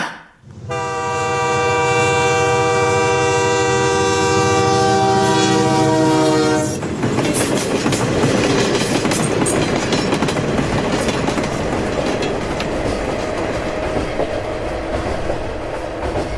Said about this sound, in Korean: 우린 기차를 탔어.